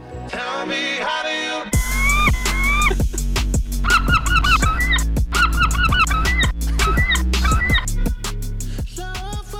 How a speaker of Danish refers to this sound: bare det, at der findes måger på YouTube, der lyder sådan der, så man bare kan tage dem direkte